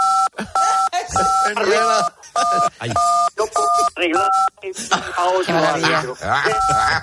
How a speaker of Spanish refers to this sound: Eh, eh, hay un pitido ahí que se mete, no sé si te, a lo mejor te acercas mucho el, auricular, no lo sé, ahí.